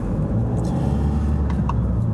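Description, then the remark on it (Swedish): A steady, loud low-frequency engine rumble of an old four-wheel-drive Toyota Hiace van driving past a school, continuous throughout with a few faint higher-pitched squeaks or rattles near the end. “Hiase är en fin gammal bil, fyrhjulsdriven och allt.”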